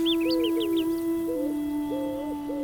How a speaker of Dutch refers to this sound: en in de plaats komen hier akkers met velden en graan en dus nieuwe vogels. De grasmus, de houtuif.